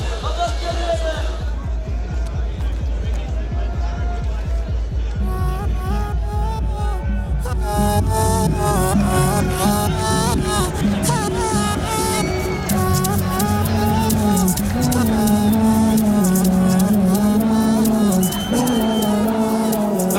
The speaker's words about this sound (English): It's a song in Arabic.